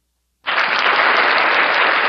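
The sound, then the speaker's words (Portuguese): An applause sound effect played from a speaker box starts abruptly after a short silence and holds at a steady, loud level, a dense crowd clapping with no voices heard. “Eu vou, só para vocês verem que tem um efeito aqui, eu vou botar um de palmas para mim.”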